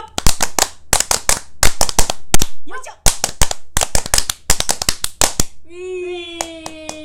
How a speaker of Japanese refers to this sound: パンパンパン、パンパンパン、パンパンパン、パン、はい、パンパンパンってやつですね。それ3回やるのそう、3本締めだから。いつもは一手締めなんですよ。